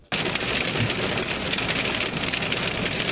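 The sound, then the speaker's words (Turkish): Dense, steady downpour drumming hard on surfaces, a loud continuous hiss with crackling impacts as heavy rain turns to hail in Ardahan, with no voices. “Ardahan'da şiddetli yağmur yerini doluya bıraktı.”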